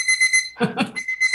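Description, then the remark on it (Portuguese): A phone alarm rings with rapid, repeated high-pitched electronic beeps, briefly broken in the middle by a short burst of lower, rougher sound before the beeping resumes. “Agora acho que não é aqui com o meu telefone, gente, não sei o que aconteceu aqui.”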